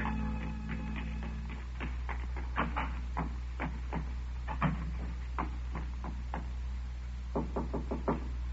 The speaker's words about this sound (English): I waited for her knock.